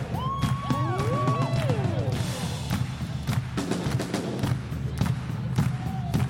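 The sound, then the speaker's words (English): A large crowd claps hands together in a steady, even rhythm to get a morning war cry going, sharp claps repeating about twice a second, with whoops and shouting voices rising over the beat near the start. “Let's put our hands together like this. Get a war cry going this morning.”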